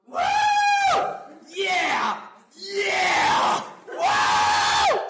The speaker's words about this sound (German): rennt halt durchs Büro und, und freut sich so laut